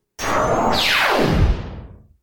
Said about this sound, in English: With a loud whir, lasers come out of Led's eyepiece.